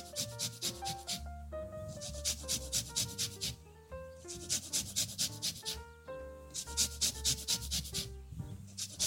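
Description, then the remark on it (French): The whole peel of an orange being zested on a grater: quick, steady rasping strokes repeating in rhythmic bursts, with tonal background music playing underneath and no talking. “Je vais faire la même chose avec mon orange. Un zeste entier d'orange.”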